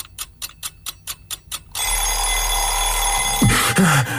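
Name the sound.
alarm clock ringing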